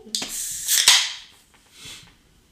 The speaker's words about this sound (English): This man just cracked open a cold one.